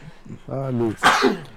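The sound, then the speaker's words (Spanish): A single loud sneeze: a drawn-in voiced build-up followed by a sharp, breathy burst, then quick fading. No other sounds around it. “Ay, salud, Salud, salud.”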